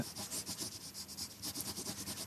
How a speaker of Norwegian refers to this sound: tar blyanten i handa og angriper arket. Blyanten er ifølge mannen som fører den raskt over papiret, litt puslete litt liten.